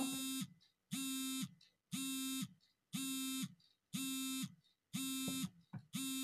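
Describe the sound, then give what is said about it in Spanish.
An alarm buzzer beeps loudly and repeatedly, seven harsh, evenly spaced tones of about half a second each, separated by brief silences, unaccompanied by any talk. “Esperen que tengo una alarma que si no la desactivo.”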